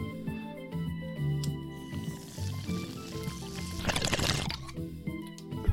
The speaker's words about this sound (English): I'll just uh, slam this coffee back and like rip this bong and um we'll be off.